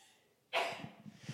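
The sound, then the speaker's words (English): A single sneeze from somewhere in a crowd, a sudden sharp burst after quiet room tone that trails off into faint rustling. No one speaks. “When I, bless you.”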